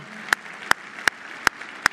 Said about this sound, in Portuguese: Queria que a gente desse uma salva de palmas para o coro, orquestra, todo esse pessoal do louvor, técnica, recepção